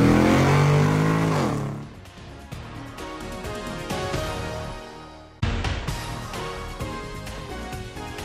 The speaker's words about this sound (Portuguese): Sérgio, engata a primeira e acelera!